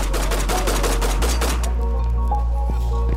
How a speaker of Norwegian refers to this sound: Det norske angrepslaget og CRU forsøker å klarere rommet fra utsiden uten å gå inn i rommet. Men da begynner terroristen igjen å skyte mot CRU og nordmennene.